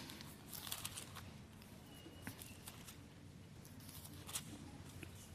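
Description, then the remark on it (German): Thin paper pages of a Bible are turned while looking up Matthew 24, with soft rustling and several brief crinkly flicks, fairly quiet, with no one speaking. “Dünnes Papier.”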